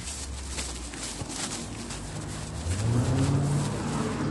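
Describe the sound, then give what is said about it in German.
Traffic noise from cars passing, a steady road rumble that swells as an engine grows louder and climbs in pitch toward the end, with no talking. “Alter, diese Autos immer.”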